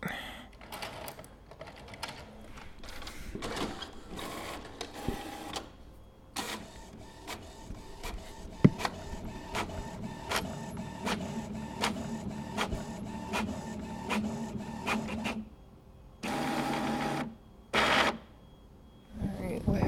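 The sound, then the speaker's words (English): A printer in a warehouse churns steadily as it prints orders, its rapid mechanical clacks and whirring feed strokes repeating for most of the stretch before breaking into a few short bursts with pauses near the end, when it stops working from low ink. “happened to the printer? Why did it stop working?”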